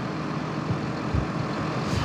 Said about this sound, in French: C'est des tracteurs qui sont installés sur cette autoroute au niveau de Saint-Rambert d'Albon